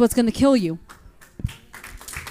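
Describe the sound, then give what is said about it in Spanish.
An audience's applause tapers into scattered, uneven claps after a brief loud vocal exclamation, the clapping soft and thinning out rather than building. “Las cosas, ahí los aplausos bajaron.”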